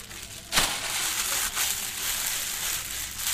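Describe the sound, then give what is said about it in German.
A plastic shopping bag crinkles and rustles steadily as purchases are packed into it after paying in a shop, with a couple of sharper crunches as items are pushed inside, and no voices. “Brauchen Sie eine Tüte? Ja, das wäre nicht schlecht.”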